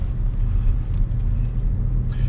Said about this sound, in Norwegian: Der står den bilen som da Bare kjører opp sånn.